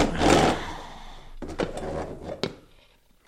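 A wooden chair scrapes and drags across the floor, followed by a few hollow knocks and bumps as it's set down, with no one talking.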